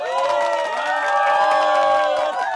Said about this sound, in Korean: 한국의 여름은 끝나가고 있었지만 필리핀은 여전히 열대의 뜨거운 열기가 지속되었다. 비지땀을 흘리며 암흑천지였던 마을에 전기를 가설하여 처음 불을 켜던 날 사람들은 기쁨의 환호성을 질렀다.